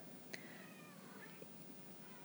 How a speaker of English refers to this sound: You may have just heard my cat. She just ran in here and started meowing. That was really cute.